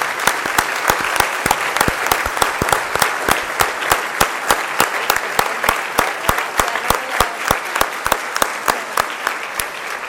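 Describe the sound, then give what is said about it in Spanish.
At the end of a Mass, a group of people applauds steadily for about ten seconds, a dense wash of clapping with a few sharp, louder individual claps cutting through, and no voices. “Le damos un fuerte aplauso, chicos.”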